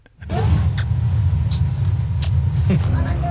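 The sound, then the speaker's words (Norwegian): Several quick, light kissing smacks come in irregular succession as French people greet each other with at least two kisses on the cheek. A steady low rumble like an idling vehicle runs underneath, with faint voices murmuring in the background. “Dette er lyden av franske mennesker som hilser på hverandre med minst to kyss på kinnet, ofte flere.”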